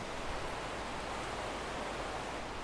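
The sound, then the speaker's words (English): A swollen river in North Leeds, running very high and muddy, rushes steadily, a dense, unbroken hiss of water much like white noise, with no voices or other sounds breaking through. “And uh, the river's really high today, so that's why it sounds so angry and a little bit like white noise.”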